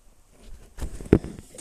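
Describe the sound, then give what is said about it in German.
Soft scuffling and rustling from a cat moving around, building to a sharp thump or knock near the end, with quieter shuffling after. No one speaks. “Sorry für dieses Rascheln, das ist meine Katze im Publikum.”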